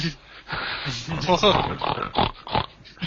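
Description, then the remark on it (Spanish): A person imitates a pig with a run of rough, nasal grunts and snorts, loud, in uneven bursts over about three seconds. “Es que no se, imitar a un cerdo, pero el sonido de un cerdo.”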